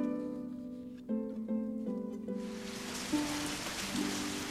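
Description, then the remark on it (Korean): Steady rain pours down, its dense hiss rising in about halfway through and continuing over soft, sustained musical notes. No one speaks. “그분들 덕에 배불리 밥을 먹고 계속 이곳에 있다가는 제 신상이 드러날까봐 부랴부랴 밖으로 나가는데 주룩주룩 비가 내리고 있었습니다.”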